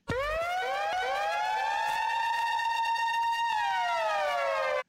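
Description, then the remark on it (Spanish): A loud alarm siren, played to announce last-minute news, wails steadily, its pitch rising and holding before sliding down near the end, with no voices over it. “Pongamos la alarma, por favor, la alarma que le gusta a Rookie”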